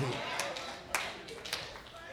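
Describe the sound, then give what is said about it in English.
A handful of scattered, irregular handclaps, quiet and sparse, with a few sharp claps standing out over a soft background hum and murmur rather than full applause. “Notice not that many people clap.”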